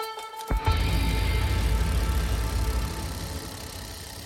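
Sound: car engine accelerating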